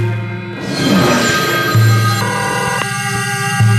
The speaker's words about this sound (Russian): Через час телефон зазвонил снова.